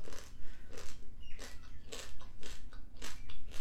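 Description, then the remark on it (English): Loud crunching and chewing of crunchy snacks, with repeated sharp bursts of crunch at an irregular bite-by-bite rhythm and no talking. “so i'm gonna eat my snacks right now oh too crunchy sorry hold on”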